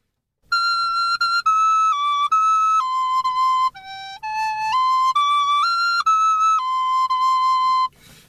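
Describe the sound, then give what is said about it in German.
A sopranino recorder, played while sitting in an electric car in the rain, plays a slow run of sustained, piercing high notes that step down, dip lower, then climb back up, clear and loud with no voices. “Ich sitze hier bei Regen im E-Auto muss noch 24 Minuten warten und spiele Blockflöte.”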